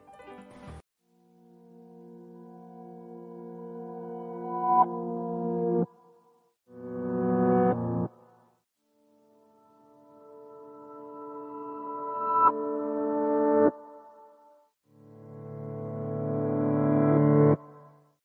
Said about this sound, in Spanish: y ahora vamos con una pequeña cortinilla